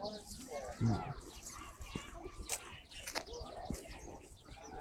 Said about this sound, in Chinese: 就这个小声小的叫声不是它的，是那个麻雀的。这头上飞过去的这是鸽子，